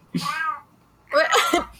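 A female cat gives two warbling meows, the first a short trilling call and the second longer and wavering, with a brief pause between them and no talking.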